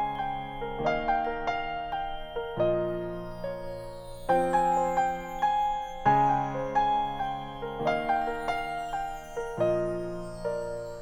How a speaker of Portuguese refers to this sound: Eu gostei tanto dessa música que vocês vão ouvir ela na íntegra agora.